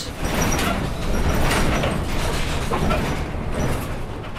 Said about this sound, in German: Und diese Lautstärke. Alles rappelt und quietscht, weil wir mit einem alten Bus unterwegs sind.